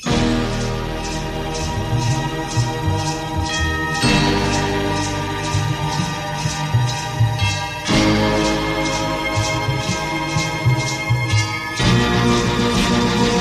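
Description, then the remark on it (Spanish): A loud, full-bodied 1963 Christmas pop song plays on its own, with a dense wall of instruments, a steady driving beat and bright jingling percussion shimmering throughout. “el primero que yo te traigo es un pedazo de villancico que se titula”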